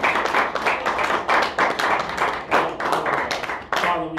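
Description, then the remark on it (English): An audience claps their hands together in praise of God, a dense, steady patter of many hands that continues for several seconds, with a brief voice rising near the end. “Give him on a good hand clap of praise.”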